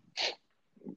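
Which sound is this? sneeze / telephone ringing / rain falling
sneeze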